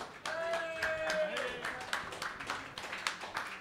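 An audience breaks into steady applause, dense overlapping claps carrying on at an even loudness for several seconds, with a sustained vocal cheer ringing through near the start.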